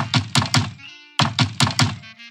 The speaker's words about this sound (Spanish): Más tarde aparece el malvado lobo. Primero va a la casa de paja y llama a la puerta.